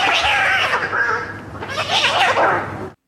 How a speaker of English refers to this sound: we have the soundboard set up for sometimes you get a bird fight. and sometimes you get a cat battle.